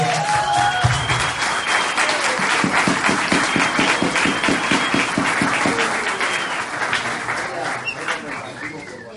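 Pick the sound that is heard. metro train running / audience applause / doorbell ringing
audience applause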